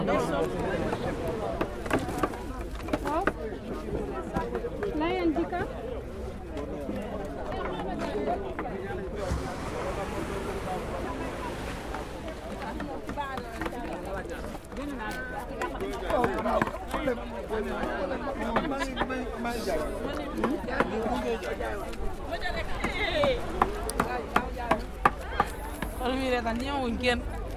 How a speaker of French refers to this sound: C'est pour enregistrer les sons de, de, la pêche. Ah. C'est les hommes qui pêchent et c'est les femmes qui. Écaillent. Oui. Et qui vendent.